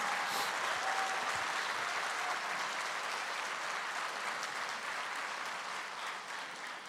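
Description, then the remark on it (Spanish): An audience applauding the Lord steadily, a dense, even wash of many hands clapping that holds for several seconds and tapers slightly near the end, with no voices standing out. “Si es para Él, denle más fuerte el aplauso al Señor.”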